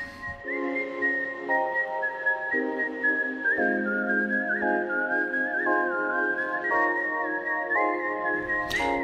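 Someone whistles a bright, steady melody that glides gently between notes for about nine seconds, carried over sustained, reedy chord tones shifting in steps underneath. No one speaks.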